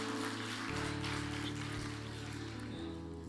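An audience applauds the Lord in a steady, dense patter of many clapping hands lasting a few seconds, with sustained low keyboard chords held underneath and no voices.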